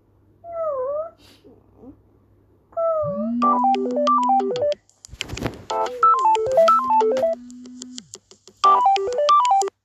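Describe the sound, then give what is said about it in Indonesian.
A couple of short, wavering, high-pitched baby whale calls, followed by a loud, bouncy electronic toy melody with a steady buzzing drone, without any talking. “Terus dia mendengar suara anak paus.”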